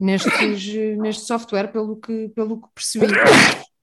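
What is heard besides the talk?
a person sneezing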